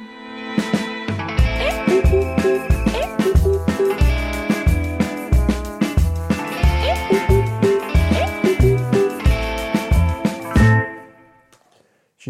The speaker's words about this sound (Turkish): bu parçada duyduğunuz gibi bazı anlamsız guguklu saat sesleri gibi şeyler var. Polka falan deyince böyle zaten e, dile takılan ritmik bir melodi ve anlamsız e, kelimeler geliyor.